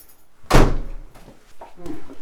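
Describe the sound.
A door swings shut with a loud thud that rings briefly, followed by quieter shuffling and faint movement sounds; a voice murmurs softly afterward.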